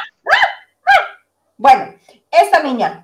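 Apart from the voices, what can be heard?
dog barking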